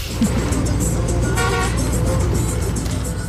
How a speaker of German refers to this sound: Und ans Hupen haben wir uns auch sehr schnell gewöhnen müssen. Das heißt nämlich in Lateinamerika nicht so wie bei uns äh, Vorsicht oder erst du Trottel, was tust denn du da fahren, sondern es heißt Huhu ich bin schneller, ich werde dich gleich